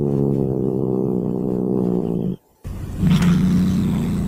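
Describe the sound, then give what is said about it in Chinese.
A cat's low, rumbling warning growl holds steady for about two seconds, breaks off briefly, then returns harsher and noisier with a hissing edge. No one speaks. “再来，我觉得可能比较熟悉的就是在警告你的声音。”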